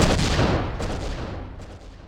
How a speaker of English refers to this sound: The echo of the gunshot rolled through the night.